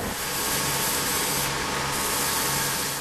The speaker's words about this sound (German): Und dann wieder der typische Arbeitsplatz. Die Schleif- und Poliermaschinen laufen im Dauerbetrieb.